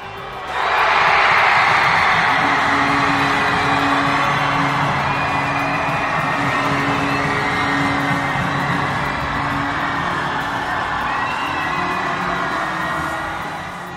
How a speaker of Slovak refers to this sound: Takto znela gólová radosť na tribúne Gaska.